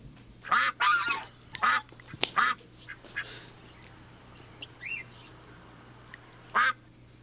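A duck quacks loudly, about five or six harsh, nasal quacks in an irregular sequence with pauses between, over a faint steady hum, with no one talking.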